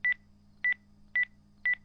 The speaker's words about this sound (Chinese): 异星的耳边响起了定时器的声音。